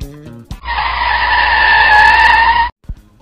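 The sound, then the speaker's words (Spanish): A car in fifth gear at full throttle tears off hard with a loud, sustained high-pitched screech lasting about two seconds, steady before cutting off abruptly, with no one talking. “Allá le están metiendo la quinta a fondo.”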